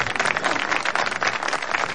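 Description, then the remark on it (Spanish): A crowd of people at a dance applauds steadily as the music ends, many hands clapping together in a dense, even patter that holds at a constant moderate level throughout, with no voices standing out. “Los presentes aplauden mientras ella lo contempla de arriba abajo.”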